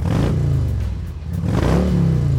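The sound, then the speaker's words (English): A motorcycle engine revs up loudly, its pitch climbing, dipping briefly, then rising again in a second throaty surge, with no talking. “So if you're out doing some autumn motorcycle riding,”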